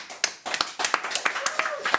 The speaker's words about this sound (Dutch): Dames en heren, mag ik een hartelijk welkom en applaus van achter de computers